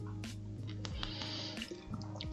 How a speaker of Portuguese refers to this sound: Eu vou dar mais um gole de água aqui. Olha só que delícia eu tomando água.